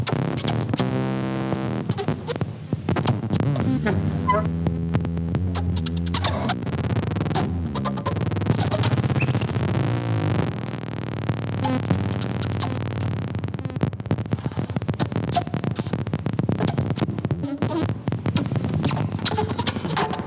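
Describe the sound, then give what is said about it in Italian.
Experimental saxophone music built from breathy, airy blowing, with wavering held tones, throbbing low hum and scattered clicks and scrapes, playing steadily and fairly loud without any voices. “Io ah, l'ho mandato molto sperimentale, tutto basato su soffi, come avete sentito, fatti col sassofono.”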